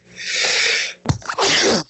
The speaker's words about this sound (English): Uh, pardon me. Oh, bless you.